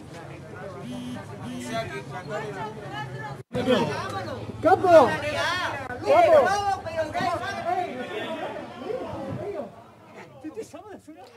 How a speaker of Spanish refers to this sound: Para quienes nos están escuchando, las imágenes que mostrábamos en el video es eh, la puerta de Burger King repleta de repartidores pidiendo los pedidos que le, pedía la gente y eh, exigiendo medidas de seguridad